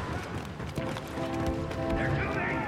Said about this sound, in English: And your footsteps, you can hear every footstep.